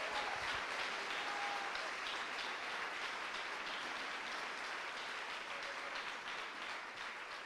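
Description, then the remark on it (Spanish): An audience claps to the Lord together in a dense, steady wash of applause that stays loud and even for the whole stretch, with no voices standing out above it. “Aleluya, oiga hermano, dele palmas al Señor.”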